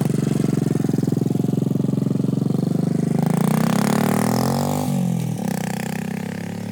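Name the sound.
motorcycle engine revving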